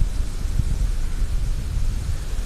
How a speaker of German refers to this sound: Aber hier eine richtig coole Lagune. Aber hier ist auch so windig. Ich hoffe, ihr hört uns immer noch.